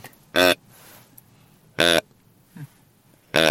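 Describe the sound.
A deer grunt call, its middle button pressed, sounds a young buck such as a spike or four-pointer: three short, loud, buzzy grunts spaced over a few seconds, plus one softer grunt, with no talking.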